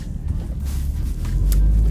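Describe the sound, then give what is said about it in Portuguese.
A bus engine rumbles, a deep steady drone that swells slightly louder toward the end, with faint hiss and a brief higher-pitched burst near the finish. “Mas esse busão, ele estragou a minha. Estragou a minha locação aqui, viu?”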